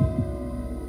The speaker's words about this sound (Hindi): मेरे दिल की धड़कनें अब तेज हो गई थी